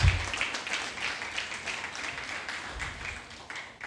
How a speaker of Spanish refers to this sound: Les damos un fuerte aplauso aquí a las hermanas.